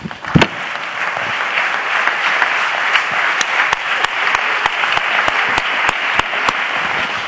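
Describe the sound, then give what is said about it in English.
An audience claps steadily, the dense wash of many hands punctuated by sharp, evenly spaced beats as they fall into a rhythm. The clapping is loud and continuous, with no voices. “Just be seated for a moment and clap your hands when you get there.”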